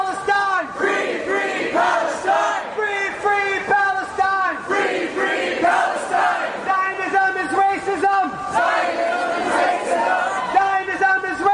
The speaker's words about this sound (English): we will scream, free, free Palestine! Free, free Palestine! Free, free Palestine!